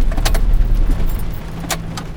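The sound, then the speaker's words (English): A car's engine rumbles low and steady as it pulls over and eases to a stop at the side of the road as it gets dark, with a couple of brief metallic clicks and jingles over the hum. “Craig pulls over to the side of the road. As he exits the vehicle”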